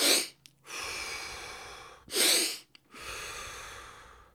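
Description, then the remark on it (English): Two sharp, deep gasping breaths in, loud, each followed by a longer, steady breathy exhale; no talking, just forceful rapid breathing. “If you take fast, rapid, deep breaths in, like,”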